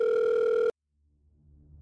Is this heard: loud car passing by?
no